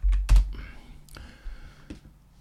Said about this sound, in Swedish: Men vi får väl wiki-klicka då. Eh, det är väl bara till att klicka på, wiki-klicka på Pernilla Wahlgren.